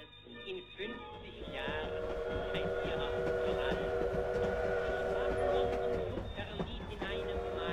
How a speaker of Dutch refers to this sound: Een trein uit Berlijn rijdt met grote witte stoomwolken het Rotterdamse station binnen.